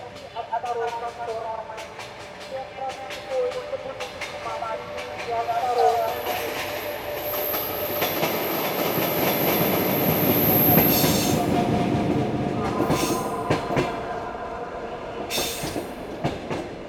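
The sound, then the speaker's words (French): A night train rolls along its tracks with a steady rumble that swells through the middle, a thin high-pitched wheel squeal and rhythmic clicks, with faint murmuring voices in the opening seconds. “le chant d'un train de nuit, les couloirs sombres d'un wagon, la cabine à quatre lits couchettes, l'odeur du thé brûlant traversant les plaines.”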